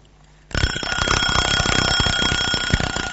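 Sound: alarm clock ringing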